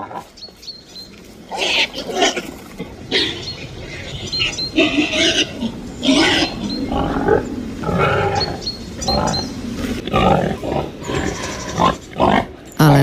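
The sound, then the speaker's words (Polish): Repeated deep, rough grunts and snorts from a wild pig-like animal in a forest, loud, coming in irregular bursts with short pauses; one brief spoken word is heard. “i proszę bardzo, takie oto chrumkanie. Chrumkanie, uwaga, dzikiego zwierzęcia w lesie, choć tak naprawdę łudząco podobnego także do tego zwierzęcia udomowionego.”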